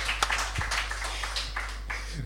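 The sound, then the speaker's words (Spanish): A short burst of audience applause, a dense, steady patter of many hands clapping with a few sharper claps standing out, lasting a couple of seconds with no talking over it. “pueden aplaudir, pueden aplaudir.”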